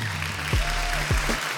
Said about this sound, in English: Man, Clap for us, people.